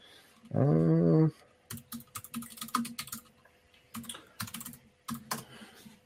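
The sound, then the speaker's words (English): Brisk typing on a computer keyboard, clicking in uneven bursts with short pauses, after a brief voiced hum at the start, as someone looks for a link to post in a chat. “I'm just going to find this link and post it in the chat.”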